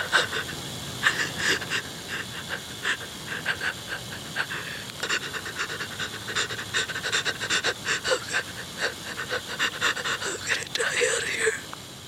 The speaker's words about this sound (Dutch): Ja, je hoort het snot volgens mij ook een beetje.